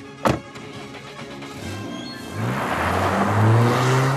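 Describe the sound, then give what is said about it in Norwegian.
A sharp click, then a large SUV's engine rumbles and revs up, growing steadily louder and higher-pitched as it accelerates hard out of a driveway toward the city at sunrise, a vacuum cleaner hose running from its exhaust pipe into the window, no voices. “Preben suser ut innkjørselen og inn mot byen.”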